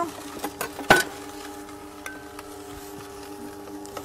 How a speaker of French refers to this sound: je vais aussi, je vais mettre aussi dans, au blender les, les tomates, Là, dans ces petits, on va faire, euh, ça c'est pour des portions.